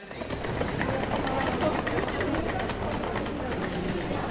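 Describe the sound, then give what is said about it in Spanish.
Suitcase wheels roll over the cobblestones of the Grand Place in Brussels, Belgium, in a steady, rough clatter of rapid bumps that runs the whole clip at an even loudness, with a faint murmur of crowd and birds beneath. “El de las ruedas de las maletas sobre los adoquines de la Gran Place”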